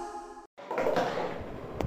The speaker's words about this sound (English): Okay, great start. I just knocked my water bottle off.